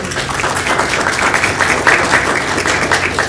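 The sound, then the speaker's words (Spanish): An audience at a round-table on comics at a book fair (Feria del Libro), organized by Librería Crisol, breaks into steady applause to welcome a speaker: a dense wash of many hands clapping at once, loud and sustained for a few seconds with no voices over it. “Nos recibimos con fuertes aplausos, por favor.”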